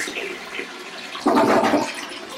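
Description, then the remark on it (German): A toilet flushes, starting with a hissing trickle and then surging into a loud, rushing gush of water that swirls and drains away. No one speaks. “Das ist schon Toilette, das hören Sie nur hier bei uns auf der Radiofabrik.”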